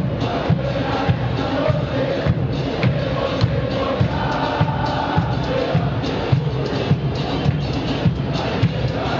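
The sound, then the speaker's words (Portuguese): A large crowd of Grêmio (tricolor) football fans sings loudly and continuously at the Beira Rio stadium, a dense wall of voices with rhythmic pulses and occasional thumps underneath. “Esse é o clima da massa tricolor que se faz presente e canta, canta alto aqui no Beira Rio.”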